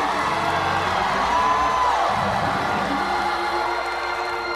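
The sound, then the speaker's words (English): A large audience in Elkhart shouts and whoops continuously, a dense, loud wall of overlapping voices with occasional higher yells rising above the roar, sustained for several seconds. “Come on, Elkhart, shout.”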